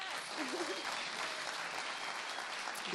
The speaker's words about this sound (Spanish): Le damos gracias también a quienes nos han seguido por esta transmisión, a quienes están presentes y a todo nuestro equipo técnico y creativo que ahora les pasaremos lista, no sin antes darles primero un aplauso.